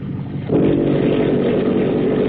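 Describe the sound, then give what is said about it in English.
Motor torpedo boat engines roar at full throttle with mufflers open as the boat suddenly accelerates through the water, the sound stepping up sharply in loudness after a half second and then holding a steady, thick, rumbling drone. “Now the prep Joe opens up and leaps through the water like a scared minnow.”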